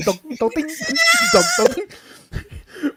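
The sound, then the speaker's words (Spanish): A person makes a loud, wavering, bleat-like vocal sound lasting about a second, imitating the alveoli of a lung with COVID, with brief breathy vocal noises before and after. “Así suenan tus alvéolos en tu pulmón cuando tienes COVID.”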